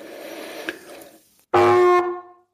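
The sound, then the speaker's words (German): A single loud blast on a brass hunting horn, a wrong note, harsh and slightly off-pitch, sounding for about a second before cutting off, preceded by quiet background noise. “Oh, das war schon mal ein völlig verkehrter Ton. Der Ansatz sitzt noch nicht.”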